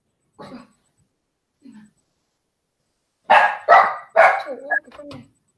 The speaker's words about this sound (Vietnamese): sao kỳ vậy mới vừa nói tới chó có chó chó sửa liền vậy